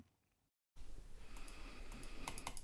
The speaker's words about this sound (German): sitzt an seinem Computer und klickt sich durch die Partie.